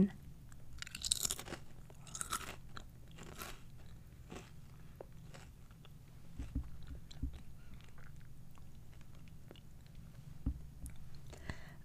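Crunching of a crisp snack being chewed, with repeated sharp crackly bites and steady mastication over a low hum, no voices present.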